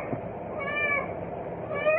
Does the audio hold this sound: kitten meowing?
yes